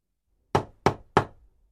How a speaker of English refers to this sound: Mr. Utterson and the policeman went to the part of the city where Mr. Hyde lived. It was a dirty, poor part of the city they knocked on the door of Mr. Hyde's house.